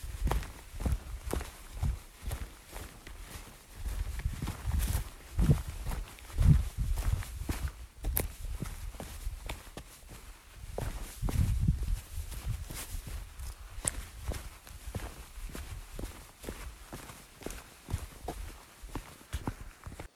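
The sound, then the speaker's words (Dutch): Quick, steady footsteps jog downhill along a hiking trail, each crunchy footfall distinct, with a low rumble of movement and breeze beneath the rhythm and no voices. “Zo, even een holletje naar beneden.”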